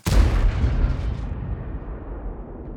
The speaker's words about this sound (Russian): А, поэтому вот из 10 э, плюс 6, 16 э, слоев, 16 звуковых дорожек, это обслуживают просто события выстрела в аркадном режиме. И еще раз послушайте выстрел после того, как все слои собраны.